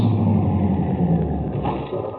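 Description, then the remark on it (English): A blue sedan's engine rumbles with a deep, steady drone, easing off slightly as the car rolls to a stop in front of a ranch house 30 miles from Salt Flats, Texas, at 11 a.m. on a Sunday in August 1949. No one speaks. “A blue sedan comes to a stop in front of a ranch house 30 miles from the town of Salt Flats, Texas.”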